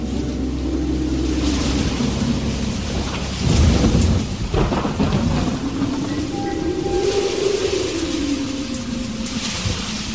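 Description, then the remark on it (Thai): A windstorm in a valley roars steadily with heavy rain hissing throughout and deep rumbling thunder swelling and fading, loudest around the middle, with no voices present. “ทุกๆวันจะมีลมพายุ พัดบุกโจมตีบรรดาสัตว์ป่าและต้นไม้ให้เกิดความสูญเสียจำนวนมาก”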